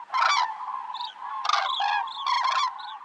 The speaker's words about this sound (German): Anfang der 50er Jahre gab es schon amerikanische Untersuchungen, wo man versucht hat, den nächtlichen Vogelzug anhand der Zugrufe zu dokumentieren.